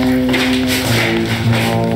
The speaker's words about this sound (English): Why are you closing the door